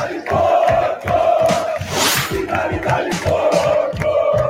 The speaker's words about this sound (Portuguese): Fez o berro da arquibancada ficar ainda maior no Uruguai, algo que parecia impossível.